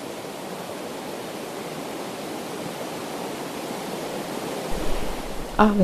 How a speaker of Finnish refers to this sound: Koski kuohuu tätä äänittämääsi valkoista kohinaa on kuunneltu jo 154 maassa.